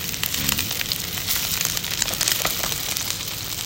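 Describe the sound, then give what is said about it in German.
Meat sizzles steadily as it is seared in a hot frying pan, a dense hiss of crackling pops that stays loud and even throughout, with no voices over it. “Also man legt es rein und es fängt gleich an zu brutzeln genau.”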